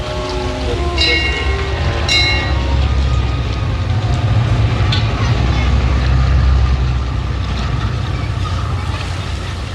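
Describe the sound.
The engine of the boat Wave Dancer rumbles low and steady as it leaves the harbor basin at minimal power, churning at a slow, even pace with a broad wash of water noise; faint voices are briefly audible near the start.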